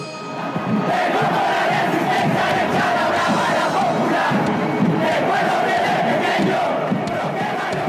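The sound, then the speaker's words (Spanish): A dense crowd of football supporters in a stadium chants steadily and loudly, many voices merging into a continuous roar with rhythmic surges, filling the whole stretch without pause. “La resistencia al la apoyaba sin cesar ante una monumental que ni en su casa se podía escuchar.”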